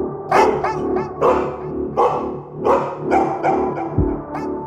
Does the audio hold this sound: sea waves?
no